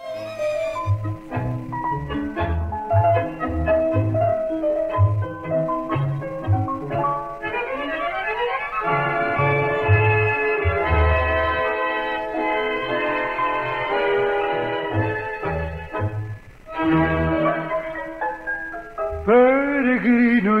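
A recorded tango plays steadily, with a rhythmic low bass pulse under sustained, swelling melodic lines from strings and bandoneon; no singing voice stands out in this passage.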